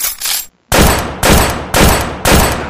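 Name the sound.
gunshot sound effect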